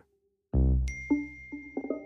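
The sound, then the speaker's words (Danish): A bright electronic phone notification ding for a new message in a chat group rings out once, loud, followed by a few short soft chiming tones that fade into a lingering hum. No one speaks. “En ny besked tækker ind i gruppen.”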